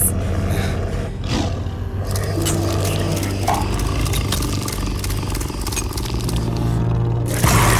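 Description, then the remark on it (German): A tamed tiger roars and snarls loudly, a continuous rough growling with harsh bursts throughout, and no one speaking. “Herr Hofer, stellen Sie sich mal zu dem Tiger, bitte.”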